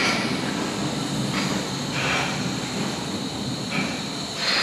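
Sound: subway train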